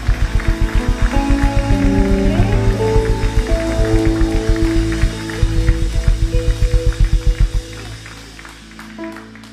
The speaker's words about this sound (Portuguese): Aplauda forte esse Deus. Então aplauda mais forte.